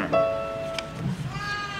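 A sheep bleats in a sustained, wavering cry followed by a second shorter bleat, with a bit of background murmur underneath.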